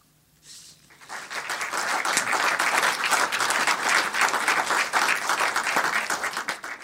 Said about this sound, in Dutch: Dat applaus klonk voor Ludwig Bindervoet, maar natuurlijk ook voor Jamel Wariachi, die tegenover me zit, auteur van het verhaal.